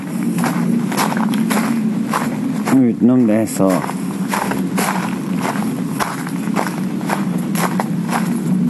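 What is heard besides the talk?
footsteps walking outdoors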